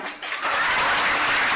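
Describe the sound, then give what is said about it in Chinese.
An audience at an Amway talk bursts into applause for themselves, a dense, steady wash of many hands clapping that swells after a brief softer start and continues at an even level, with no voices. “嗯，在这个讲这个之前哈，我觉得应该呃给大家再做的一个掌声，因为你们爱学习，行不行？”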